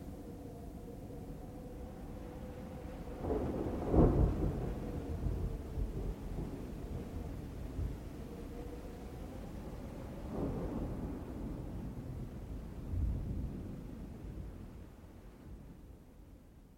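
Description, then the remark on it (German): A thunderstorm rumbles with deep, rolling thunderclaps, the loudest around four seconds in and another later, over a steady low roar of wind and rain with no voices. “Aber der Sturm hat Ihre Telefonleitung abgerissen.”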